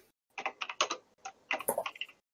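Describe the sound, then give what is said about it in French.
Quick bursts of keystrokes on a computer keyboard, moderately loud, in two short clusters separated by a brief pause, with no voices, as someone types their name in a chat. “Est-ce que chacun, moi je vais écrire mon nom, comme ça, je chacun peut noter son nom sur le chat, comme ça je pourrais les noter.”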